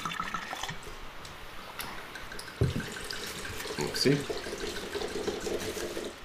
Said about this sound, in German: Das ist ein guter Übergang zum dritten Wein. Jetzt kommen wir zum Trockenswein, mhm. den wir uns jetzt einschenken ja. dürfen.